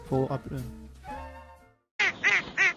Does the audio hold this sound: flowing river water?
no